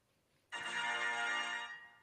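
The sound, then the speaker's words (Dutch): A single sustained electronic beep sounds close and loud, holding steady for about a second before fading out, the end-of-cycle tone of a microwave oven. No one speaks. “Magnetron, wauw.”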